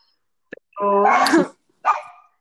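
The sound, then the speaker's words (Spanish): A dog barks twice: a drawn-out, tonal bark followed after a brief pause by a shorter, sharper one, with a couple of faint clicks just before. “yo también ya quiero salir a pasear a mi perro, eh, que se están manifestando justo ahora.”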